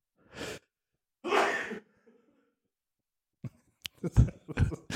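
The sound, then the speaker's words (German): A sharp intake of breath and a burst of air, like a sneeze, followed by a cluster of short, stifled breathy bursts and sniffs, moderately loud. “Ich glaube, ich muss niesen, warte.”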